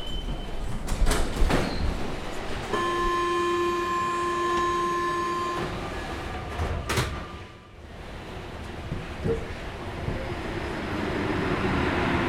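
A métro line 4 train heading to the Bagneux-Lucie-Aubrac terminus, south of Montrouge in the Hauts-de-Seine, rumbles steadily underground, a sustained tonal whine rising above the noise for a few seconds, with occasional clunks and a brief lull before the rumble builds again.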